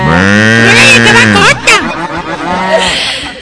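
A voice imitates a cow mooing, a single long, drawn-out moo that sags in pitch, followed by a brief burst of rustling noise and muffled background sound.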